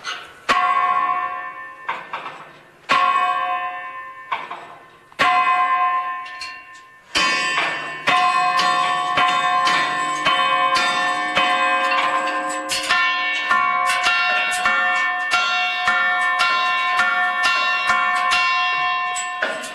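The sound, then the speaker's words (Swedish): A large bell, rung by pulling its ropes or chains, clangs repeatedly with rich, ringing overtones, first in separate strikes a second or two apart, then in rapid overlapping peals that build into a continuous, reverberant clamor. “så ska jag det här gå fram och dra i det här i det här snören eller kedjorna här så får ni höra då hur det här hur det klockan klockan låter”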